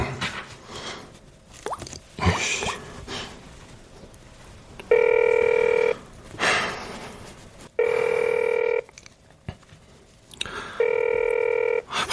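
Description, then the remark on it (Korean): A telephone rings three times in steady, evenly spaced bursts, each about a second of bright, buzzy electronic tone, with quiet rustling and shuffling in the gaps between rings. “전화 좀 받아. 제발 할 말이 있어.”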